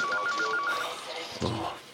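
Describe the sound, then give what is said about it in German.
A telephone rings with a rapid, warbling electronic trill of short repeated pulses, then stops as a person begins speaking over faint background noise; the call is from the television people in Leutschenbach. “oh, das sind die vom Leutschenbach. Willst du gerade abnehmen?”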